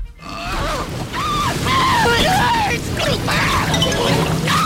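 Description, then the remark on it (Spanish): Frantic screaming from several voices rises and falls over continuous loud splashing and churning water, a dramatic film-style scene lasting a few seconds. “película clásica, agua, Tiburón”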